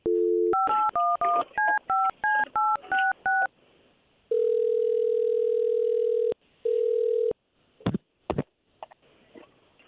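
A short dial tone gives way to a rapid run of about ten touch-tone beeps as radio morning show hosts key in a man's phone number, followed by a long ringback tone, then a click as the line is picked up.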